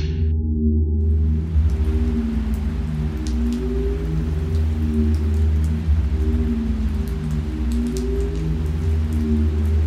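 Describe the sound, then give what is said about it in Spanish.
Steady rain drums again and again on the sheet-metal roof of a makeshift home, a dense continuous patter with scattered sharper drop hits, backed by a low rumbling hum throughout. “Abrió los ojos y descubrió que la lluvia golpeaba una y otra vez el techo de lámina de su improvisado hogar.”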